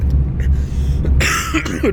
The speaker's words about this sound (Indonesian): maaf saya batuk.